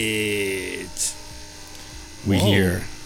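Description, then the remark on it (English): A loud mechanical buzz like a small power drill, whining steadily for a moment, cutting out, then revving back up with a rising and falling pitch. “What's that sound? Oh, oh. Jenny. Jenny. Stage. There we go. Oh, there we go. Sound like a little power drill.”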